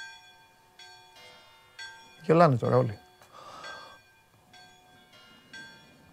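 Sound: church bells ringing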